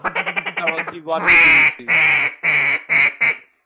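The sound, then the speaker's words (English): A duck call imitates mallard quacks, meant to call in a mallard drake: a fast chattering run of short notes, then five loud, drawn-out nasal quacks with brief gaps, no other sounds around them. “also been practicing my duck calling a little bit.”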